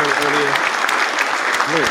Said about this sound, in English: I'm gonna go ahead and get a round of applause for that because that was really dope.